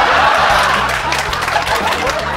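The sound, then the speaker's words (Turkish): A canned applause sound effect played by a host after greeting the audience: dense, steady clapping from a crowd, mixed with a little laughter, loud and unbroken for the whole stretch, with a low humming tone running underneath. “Burada mesela size merhaba diyorum ve sahte bir alkış efekti basıyorum.”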